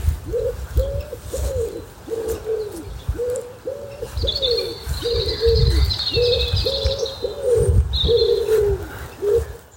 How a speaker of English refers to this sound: that other racket that you can hear, and it is a racket, is a wood pigeon. Different noises this morning because I'm in a different part of the house. Well, not in the house, of course. I'm in the uh, field at the bottom of our garden.